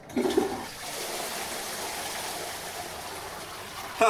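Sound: toilet flushing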